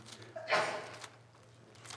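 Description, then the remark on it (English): A single sneeze bursts out, with a brief voiced intake just before the sharp, breathy blast that quickly fades. A steady low electrical hum runs underneath, and no one speaks. “Bless you.”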